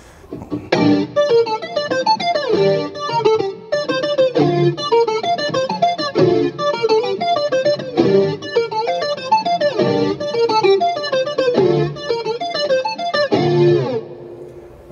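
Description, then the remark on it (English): An electric guitar run through a heavy effects pedal plays a bright, rhythmic arpeggiated line that sounds like a synthesizer, with no keyboard involved, loud, with steady repeating phrases and no voices. “sounds like a synth.”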